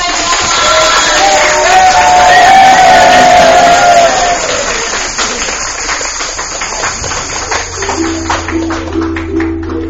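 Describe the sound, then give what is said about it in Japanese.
An audience at a live event applauds and cheers to welcome the guest performers: loud dense clapping with a few whoops at first, then thinning to scattered claps over the last seconds as a low steady hum comes in. “皆さん拍手でお迎え”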